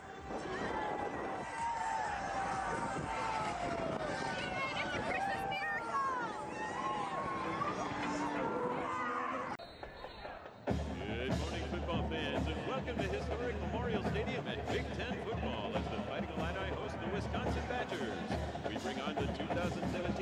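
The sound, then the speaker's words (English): A large crowd at Memorial Stadium, a Big Ten stadium, before an Illinois versus Wisconsin game, minutes before the pregame show, fills the space with a steady, loud roar of overlapping chatter and shouts; it briefly dips partway through, then returns fuller over a low, sustained rumble. “You can't see it, but here's what a Big Ten stadium sounds like right before a pregame show.”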